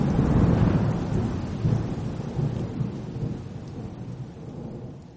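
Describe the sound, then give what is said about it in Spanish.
A winter thunderstorm in Valdivia, with thunder and lightning: heavy, rolling thunder rumbling low and loud over steady rain, the booms swelling and fading in waves throughout, with no voices. “Truenos y relámpagos que me asustan.”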